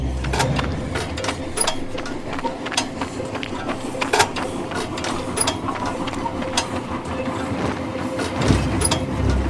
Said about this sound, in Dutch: Een bewoner in de buurt wist dat enkele minuten daarna een goederentrein uit Bund over het spoor kwam.